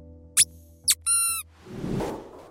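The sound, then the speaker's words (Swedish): A squeaky dog chew toy gives two quick, sharp squeaks and then one longer, tonal squeak, fairly loud, followed by a soft breathy hiss as the toy refills with air. “Hundar gillar ljudet av pipande tuggleksaker för det påminner om ljudet när ett litet djur skriker av smärta.”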